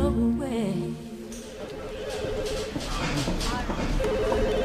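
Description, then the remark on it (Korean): A telephone rings at work in an office with a rapid, trilling electronic tone that comes in repeated bursts, following a brief sequence of stepped melodic notes, over a busy, steady background. “평소와 다름없이 회사에서 업무를 보고 있는데 그에게서 전화가 걸려왔습니다.”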